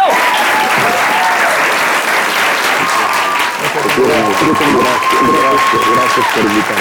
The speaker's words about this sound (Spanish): Así será, amigo. Un fuerte aplauso